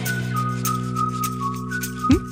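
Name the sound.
whistled melody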